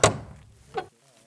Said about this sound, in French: Approchez-vous de la première. Admirez les détails de cette porte. Sa couleur, sa forme, sa taille, tous les éléments qui font d'elle un ouvrage unique. Posez votre main sur la poignée et, doucement, ouvrez la porte.